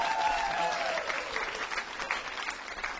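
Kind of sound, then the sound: crowd, thunderous applause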